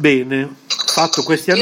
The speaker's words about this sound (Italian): Chiedo scusa per il casino, in questo momento è la mia sedia da gaming. che fa casino.